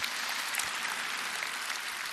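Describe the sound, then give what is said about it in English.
A crowd applauds steadily as a clap offering to God, a dense, continuous wash of many hands clapping with no single claps standing out and no voices heard over it. “Shall we give God a clap offering once again?”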